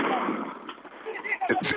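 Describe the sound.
Sharp explosive bangs from police stun grenades and from molotov cocktails thrown at police by hundreds of black-clad protesters burst out near the end, a couple of quick blasts over a steady roar of crowd noise and voices.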